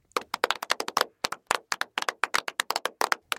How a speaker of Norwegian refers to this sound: Det prikker i huden idet det nærmere 70 tonn tunge flyet deiser i bakken på arabisk jord, og de seks norske internettvennene klapper i hendene.